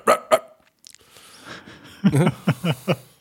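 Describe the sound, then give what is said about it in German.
A person imitates a dog barking with a few short, sharp vocal yelps, followed by a quick run of rhythmic, choppy voiced bursts. “Wir sind eher so also, die Beller, weißt du? Wir bellen so.”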